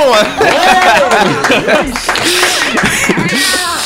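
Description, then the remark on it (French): A small group in a Buzz Radio studio claps and laughs together, with lively overlapping voices and chuckles mixed into steady applause, loud throughout. “En tout cas, je pense qu'on peut applaudir chaleureusement notre ami”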